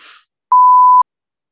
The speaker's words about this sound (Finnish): Sun pitää nyt piipata mä... toi. Piip.